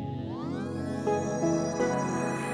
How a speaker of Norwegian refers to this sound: Og vi har med et eh, fast innslag som skal være med fremover, som heter 'Derav navnet'. Og vignetten den høres slik ut.